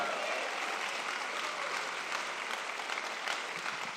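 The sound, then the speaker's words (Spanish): An audience gives the Lord a loud round of applause, clapping steadily: a dense, continuous wash of many hands clapping at an even, sustained level from start to finish, with no clear talk over it. “Alguien dale un aplauso fuerte al Señor.”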